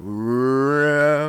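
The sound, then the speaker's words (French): A person's voice imitates the THX cinema logo sound heard at the start of a film: one loud, sustained droning tone, rising slowly in pitch for about a second before cutting off. “Euh, avec une petite animation que, au lieu d'être le son THC, là, qui.”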